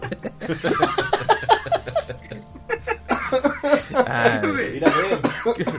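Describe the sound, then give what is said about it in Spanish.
Laughter breaks into repeated coughing, several harsh bursts in a loose rhythm, fairly loud, with other people laughing and chuckling around it. “ya me río como tío, me río y me da tos.”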